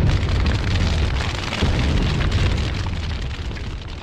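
A huge, sustained explosion roars loudly with deep rumbling and crackling debris, the blast rolling on for several seconds before gradually easing, with no voices present.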